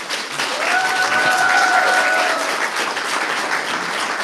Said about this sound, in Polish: Raz jeszcze oklaski poproszę.